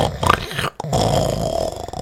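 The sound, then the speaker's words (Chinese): A voice imitates the snoring of a relative next door in the speaker's hometown: a short raspy snort, a brief break, then a longer, steady, guttural rumble that stays fairly loud until the end. “我们老家是隔壁的亲戚在打呼，都可以清清楚楚听到”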